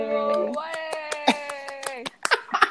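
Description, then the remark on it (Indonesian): Steady hand claps welcoming a guest on Beli Game, about a dozen sharp slaps in a quick even rhythm, under a long held vocal tone, followed by a few looser claps and brief voices at the end. “Tepuk tangan manual.”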